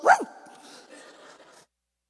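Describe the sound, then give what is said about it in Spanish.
A person imitates a chihuahua with one sharp, high-pitched yap, trailing off into a softer, raspy whine for about a second before silence. “Ando ladrando como chihuahua, ahora ronco.”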